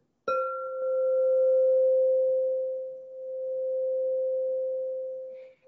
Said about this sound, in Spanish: fueron los tazones de cuarzo esto no es un cuenco, es un tazón